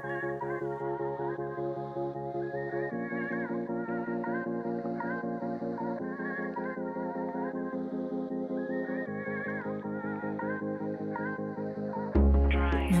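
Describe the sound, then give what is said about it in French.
An electro rap track in rotation on Radio Grenouille 88.8 plays loudly, with sustained synth chords shifting every few seconds over deep bass and heavily effected, warbling melodic lines, ending in a sudden louder burst. “La musique de la radio grenouille, c'est un rap électro qui tourne très très bien sur le 888”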